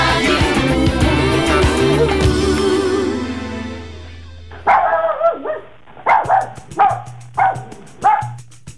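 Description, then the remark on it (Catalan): Music plays, then fades out, and a dog barks several times in short, sharp bursts with uneven gaps between them, in a Ripollet Ràdio promo for Peluts, its programme giving a voice to abandoned animals. “tots els dimarts de 5 a 6 de la tarda el pots escoltar a Peluts, l'espai de Ripollet Ràdio que dona veu als animals abandonats.”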